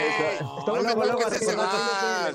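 A voice imitates a goat bleating: a loud, quavering bleat that wavers continuously for about two seconds, with no other sounds around it.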